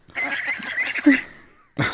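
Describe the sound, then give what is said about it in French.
A duck quacks in a loud, raspy, nasal call lasting about a second, fading out before a second quack starts abruptly at the very end. “C'était un débris de canard.”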